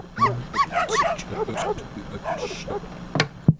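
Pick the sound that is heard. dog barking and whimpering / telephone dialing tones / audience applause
dog barking and whimpering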